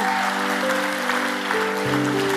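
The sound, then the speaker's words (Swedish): An audience at a church service applauds Jesus in a steady, dense burst of clapping over sustained keyboard chords that shift pitch partway through. The clapping stays loud throughout, with no talking. “Vi kan ge Jesus en applåd.”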